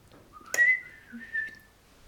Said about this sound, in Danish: Det var ikke sådan, det var ikke flot fløjt. Det var sådan, det var mig, jeg klippede en, en snor over i luften.